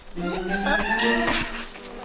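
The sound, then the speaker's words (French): A swarm of worker bees buzzing in flight as they chase Maya and Willy, several overlapping drones rising and falling in pitch as they pass, steady and fairly loud for about two seconds with no talking. “Les voilà. Les abeilles ouvrières sont à leur trousse.”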